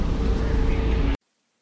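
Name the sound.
inside a moving bus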